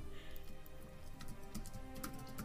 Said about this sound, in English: I hear you typing.